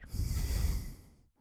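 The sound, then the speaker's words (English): A single forceful, airy blast of breath pushed out through the nose to clear the nasal breathing pathway, fairly loud, lasting just over a second before trailing off into silence. “And the next thing we need to do is clear the nasal breathing pathway.”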